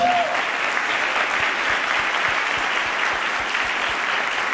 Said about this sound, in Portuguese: eles estão hoje aqui, fica de pé por favor, eles estão hoje aqui, vamos aplaudi-los gente.